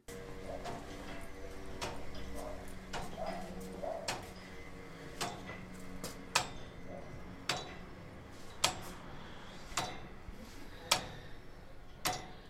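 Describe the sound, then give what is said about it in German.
An old clock and gear mechanism in a heavy metal frame case, set going, ticks steadily, with crisp clicks and occasional heavier knocks at a regular pace, set against a low, constant mechanical hum. “Wenn Georg Ramensee eine von ihnen in Gang setzt, taktet und rhythmisiert das gleichmäßige Schlagen, Klopfen und Ticken behutsam die meditative Stille.”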